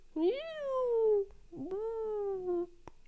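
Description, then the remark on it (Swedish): A voice imitates small whale calls with two long, sliding tonal cries, each rising then slowly falling in pitch, fairly loud with a brief pause between them. “Det låter som ett stim, små, små valar.”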